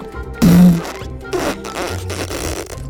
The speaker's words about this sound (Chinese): 结果狮子噗放了个屁